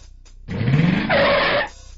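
A car's tires screech loudly in a brief skid, rising in pitch then holding a sharp squeal before cutting off abruptly as the vehicle stops, with no other sounds.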